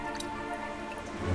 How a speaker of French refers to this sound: Écoute. Tu entends ce petit murmure C'est le bruit de l'eau.